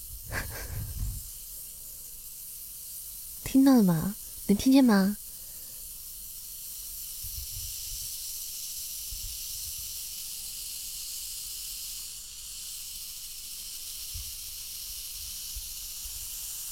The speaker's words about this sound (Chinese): 给你们听一下泡腾片的声音，